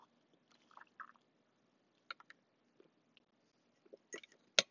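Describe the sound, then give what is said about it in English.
Someone sips water through a straw from a gallon jug water bottle: soft, irregular slurps and wet gulps with small clicks and squishes, scattered across a few seconds with quiet gaps and no talking. “Let me drink, and it might be a little loud because I drink from a gallon jug water bottle with a straw.”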